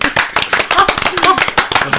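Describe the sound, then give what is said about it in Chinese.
Steady applause from a group, a dense run of sharp overlapping claps lasting the whole moment, loud and even, with faint vocal sounds mixed in. “然后咱们这个鼓此处有掌声。”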